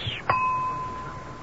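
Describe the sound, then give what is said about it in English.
A single light tap on the edge of a champagne glass, opening a small private violin concert, sets off a clear, high ringing tone that holds steady and slowly fades over more than a second, with no talking. “Now, we will begin tonight's concert by tapping the edge of this champagne glass.”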